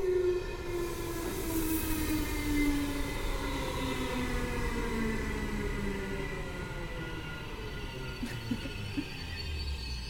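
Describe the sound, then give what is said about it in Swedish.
A train going the other way passes by at a station, a steady loud rumble with a whining tone that slowly falls in pitch as it goes. No one speaks. “Ja, nu kommer det ett tåg här.”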